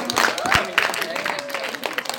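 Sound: audience applause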